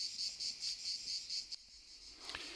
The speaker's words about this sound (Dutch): nou ja, we lezen het eh, vanuit Frankrijk. lezen we het voor op een terras met uitzicht over een prachtige vallei... met op de achtergrond het geluid van de krekels.